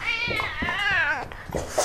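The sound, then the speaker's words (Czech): Oliver, a five-year-old tomcat in Litvínovice near České Budějovice, meows in one long, drawn-out, wavering call whose pitch rises and falls, greeting visitors as the door opens; fairly loud and clear with no talking over it. “Kocour Oliver je evidentně komunikativní a upovídaný kocour, protože sotva jsme otevřeli dveře, tak nás přivítal mňoukáním”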